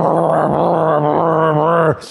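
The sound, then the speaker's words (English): A voice imitates the loud snoring of about 30 men sleeping in bunk beds in one room, with one long, rough, growling drone that holds steady for about two seconds and ends in a short breathy hiss. “And, and, and so, you know, that night, this cacophony of snoring, and it's just like, I'm like,”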